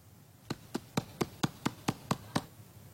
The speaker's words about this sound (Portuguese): Essa é uma porta que eu estou batendo.